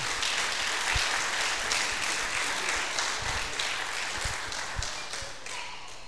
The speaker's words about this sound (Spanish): ¿Cuántos se alegran? ¿Cuántos aman a sus pastores? Denle un aplauso fuerte a Dios por sus pastores.